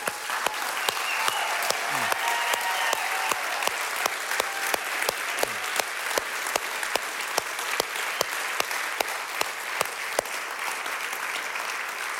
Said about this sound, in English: But before that, I thought we should just stand up and clap and cheer for the first responders and just honor them, like as if they were here, as if they were be- really being honored.